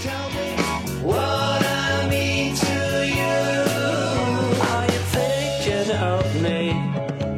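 A full-band pop song with a lead singing voice that artificial intelligence has converted to resemble another singer, with slightly altered harmonies. It is loud and steady throughout, with a bass line stepping beneath sustained chords and bright cymbal wash on top, and no talking.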